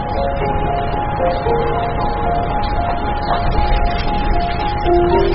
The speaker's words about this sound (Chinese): 主任，主任，您的手机已经响了好几回了，是不是有什么急事？